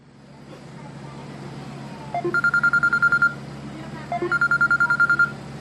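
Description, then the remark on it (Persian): A mobile phone rings twice on a bus heading back, each ring a rapid burst of electronic pulses lasting about a second, over the steady low rumble of the moving bus; the caller is the owner's mother. “تو اتوبوس که داشت برمیگشت پنفلت پسوریازیس دستش بود تلفنش زنگ خورد مادرش بود”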